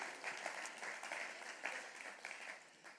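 Applause from a group fills the whole stretch, a dense steady patter of many hands clapping at once with no voices on top.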